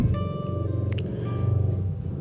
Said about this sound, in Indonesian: aduh ada ada suara motor sorry